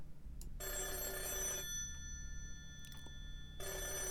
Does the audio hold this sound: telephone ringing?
yes